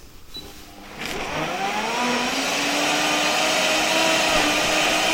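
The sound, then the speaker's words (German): A smoothie blender motor switches on about a second in and runs steadily, chopping leafy greens, its pitch sweeping upward before settling into a loud, continuous whir with no voices. “So ein Smoothie-Mixer schafft es natürlich wirklich, das maximal zu zerkleinern, das Blattgrün.”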